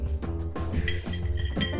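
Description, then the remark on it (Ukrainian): A spoon stirs a Black Russian cocktail of coffee liqueur and vodka in a glass, giving off a quick run of bright, repeated clinks and tinkles over a low steady hum, with no talking. “Так, я змішав кавовий лікар і горілочку. Перемішуємо.”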